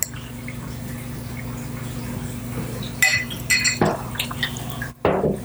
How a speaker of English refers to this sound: All right, we're pouring the next beer.